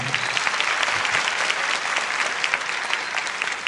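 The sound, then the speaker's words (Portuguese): Steady audience applause fills the whole stretch, a dense patter of many hands clapping at an even loudness with no voices on top. “Uma salva de palmas para a afetividade dos brasileiros, por favor.”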